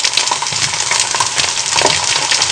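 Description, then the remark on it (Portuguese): Steady, dense sizzling and crackling from a pan of melting lead on a stove, fairly loud, with occasional brighter pops and scraping clinks throughout. “eu voltar lá pro fogão, onde que estou destruindo o fogão, a panela e também derretendo chumbo.”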